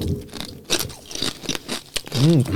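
crunching on nacho chips

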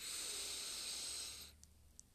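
inhaling through one nostril

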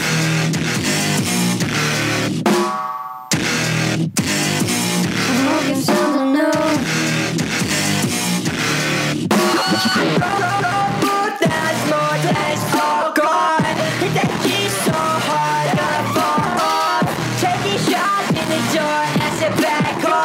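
electronic pop song playing

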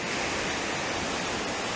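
ocean waves washing ashore

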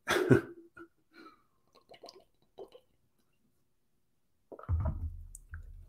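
sipping water

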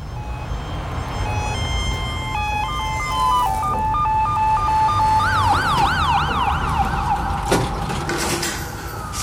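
ambulance siren

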